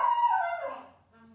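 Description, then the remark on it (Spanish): A dog named Lunita whimpers in a long, high, wavering whine that slides downward and fades, followed by a softer, quieter whimper near the end. “Muy bien, eh, vamos a entrar de una vez porque tenemos aquí eh, bueno, a Lunita que ya la están escuchando.”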